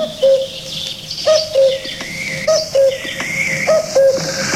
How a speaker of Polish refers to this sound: O, to jest sygnał stacji wileńskiej.